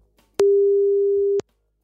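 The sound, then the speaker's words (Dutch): A single telephone call tone as a BNR Nieuwsradio presenter places a call: one steady, mid-low electronic beep lasting about a second, loud and unwavering, with sharp clicks where it starts and stops. Nobody speaks. “Nou, laten we eens even gaan bellen.”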